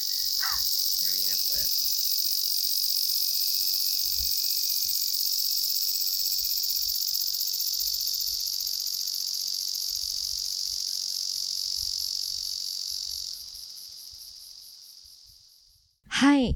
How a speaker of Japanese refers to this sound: とりあえず、セミがすごい。めちゃめちゃ泣いてるね。セミが。どこにいるんだろう。確かに。なんかもう、すごい凝視したら何個も見つかりそうだね先ほどセミを踏んだ身としては償いの意味を込めてちゃんと聞いてないと確かにここからは綺麗なセミの声をお届けします どうぞ